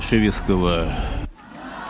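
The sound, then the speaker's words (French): A crowd in Russia, at a memorial ceremony that turned into an anti-regime rally, chants an anti-war slogan in unison, two loud rhythmic bursts of many voices, before the chanting stops abruptly and a quieter crowd murmur remains. “On a même entendu la foule crier vainer non à la guerre, ce qu'on n'entend plus depuis des mois en Russie.”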